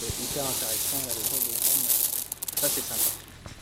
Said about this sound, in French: Ouais, donc ça c'est le bruit des graines hein, qu'on vient, d'entendre directement dans, la, dans la machine.